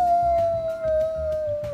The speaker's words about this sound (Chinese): 然后就真的有 狼回应说嗷。